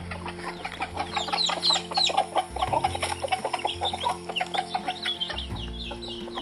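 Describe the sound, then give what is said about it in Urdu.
A hen clucks repeatedly in short, busy bursts, calling her newly hatched chicks to grain, with other chickens chattering around her and faint peeping in the background, fairly steady throughout. “وہ روز دیکھتے کہ کس طرح سے مرغی ان کو دانے کے لیے بلاتی ہے”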